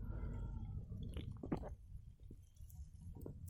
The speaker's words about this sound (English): Here, let's take a swig of uh, Diet Barq's root beer.